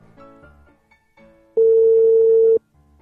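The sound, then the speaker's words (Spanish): A phone call's ringback tone: one loud, steady electronic beep lasting about a second, preceded by faint, muffled background sounds and followed by quiet. “Pitido.”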